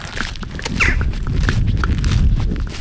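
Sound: footsteps walking outdoors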